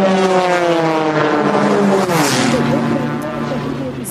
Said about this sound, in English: Some of the most skilled pilots in the world competing in the Red Bull Air Race World Championships in Hungary. This is Canadian Pete McLeod flying as fast as he can through a series of giant inflated gates.